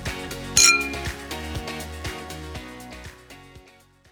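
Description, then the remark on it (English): A single bright clink of wine glasses touching in a toast rings out near the start, its high ringing tone briefly sounding over a steady, rhythmic music bed that gradually fades. “Now that's worth raising a glass to.”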